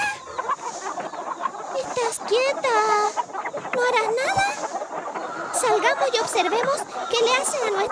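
Hens cluck and squawk continuously, a busy overlapping chorus of short, warbling calls with rising and falling pitch that fills the whole recording.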